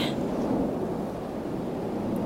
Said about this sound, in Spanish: Dale, dale que llueve.